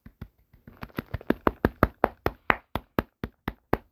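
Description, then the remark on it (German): A short burst of hand clapping, apparently one or two people, steady and quick, around fifteen sharp claps that start soft and grow louder before easing slightly. No voices. “Der ist dafür erstmal einen kleinen Applaus.”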